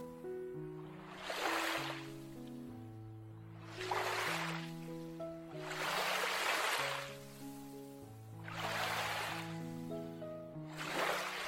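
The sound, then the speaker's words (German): Ocean waves wash in with a steady rhythm of about one surge every two to three seconds, each swelling and receding, over a soft, sustained musical drone with no voices. “Tauche nun mit deinem Bewusstsein, während du den Wellen lauscht und ihn zusiehst, ganz bewusst in den Zyklus des Lebens ein.”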